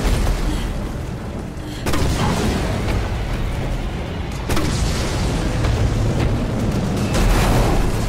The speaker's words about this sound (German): Als Jill einen Benzintank anschoss, explodiert dieser und auch das Wesen fing Feuer.